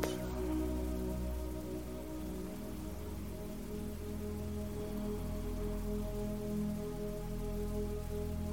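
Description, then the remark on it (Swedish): Steady rain falls continuously on a surface, a dense even patter with a low rumbling undertone, unchanging for the whole stretch with no voices. “Fokusera nu på din andning och se om du kan andas i takt med ljudet av regnet på något sätt.”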